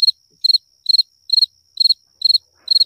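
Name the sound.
cricket chirping sound effect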